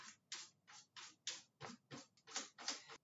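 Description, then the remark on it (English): A cat scratches in a litter box in a basement while relieving itself: about ten brisk, gritty rasps in a steady back-and-forth rhythm, fairly quiet, with no voices. “This is when Bentley has decided to take a shit. You can hear it really well because we're recording in the basement. They're noisy cats.”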